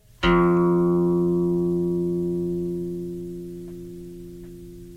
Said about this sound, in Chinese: 所以我们现在先用空弦散音这个音来来听一下。我弹这个空弦音，我们听，你们可以开始去算，你用一二三四开始慢慢算哈。你看你算到几，你还听得到声音？